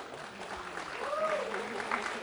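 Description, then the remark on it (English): A church audience claps steadily for a young boy after a prayer of blessing, a dense, continuous patter of many hands at moderate volume, with a faint voice briefly rising above the applause. “They're clapping for you.”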